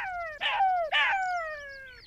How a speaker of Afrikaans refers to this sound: Maar toe hoor sy die jakkals lag en sy sê ontsteld: "Is dit vir jou snacks?" "Baie snacks," lag mamma jakkals.